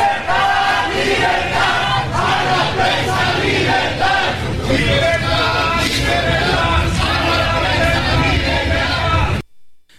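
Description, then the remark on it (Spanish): A loud crowd of protesters in Chilpancingo, capital of Guerrero, Mexico, chants and shouts slogans in unison, voices overlapping in a dense, continuous roar that carries steadily before cutting off abruptly near the end. “Pues ahí están los gritos y las consignas que se están escuchando en estas horas en, en la capital de Guerrero, en la ciudad de Chilpancingo.”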